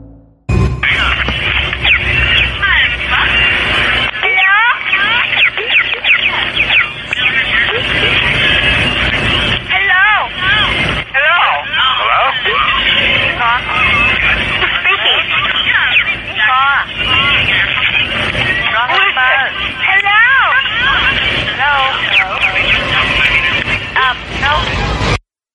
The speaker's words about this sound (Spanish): Lo que acabas de escuchar son voces editadas de puras mujeres y hasta niñas. Resulta que todas ellas fueron víctimas de un asesino que se dedicaba a grabar las voces de sus víctimas cuando les hablaba por teléfono, para luego ser editadas